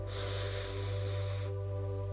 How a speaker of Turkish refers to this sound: Ve son nefes ise ruhumuz için, kalbimiz için kocaman büyük bir nefes alıyoruz.